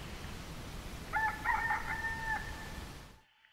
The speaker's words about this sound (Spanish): Oigo cantar los gallos, de noche y de día, gallos siempre.